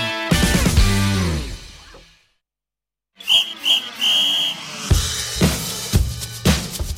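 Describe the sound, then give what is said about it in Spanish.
Radio time-signal beeps marking eleven o'clock on Canal Sur Radio sound after a brief silence: two short high-pitched pips and then a longer tone, with sharp percussive hits following and tonal music before the gap. “Ahí está ya el pitido de las 11 y el pitido del inicio de, del vaya palo nos ha dado.”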